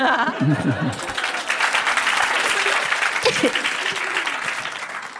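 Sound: applause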